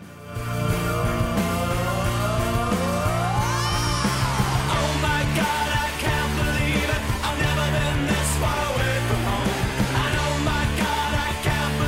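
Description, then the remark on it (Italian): A loud, full-band rock theme jingle for the segment "I Can't Believe This Is Happening" plays steady, with driving distorted guitars and pounding drums, a rising guitar swoop early on, and shouted, whooping vocals over the top. “Sta per arrivare la sigla, sta per arrivare il momento di I Can't Believe This Is Happening”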